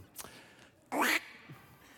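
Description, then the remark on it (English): A single loud, nasal quack imitated by a human voice, short, standing out against faint background noise with a softer sound just before it. “What does the duck say? Quack, says the duck.”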